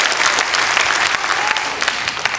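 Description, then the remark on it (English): On a Saturday night, a group of people claps steadily together in worship, a dense wash of overlapping hand claps with no pauses, holding at a fairly even loudness throughout. “Okay, so look, if you, you, you, I know it's Saturday night, but if you want to clap, let's go for it.”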